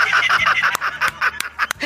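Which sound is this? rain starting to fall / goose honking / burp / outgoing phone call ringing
goose honking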